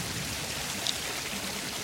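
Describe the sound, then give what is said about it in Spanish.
Steady rain falls on the Estación Central commune of Santiago, Chile, with 5 millimetres fallen so far, in a constant, even hiss, with a soft patter of drops blending together and no voices; one brief, slightly sharper tick stands out near the middle. “La comuna Estación Central en Chile ha comenzado a llover. Tenemos lluvias aquí que están invadiendo la capital.”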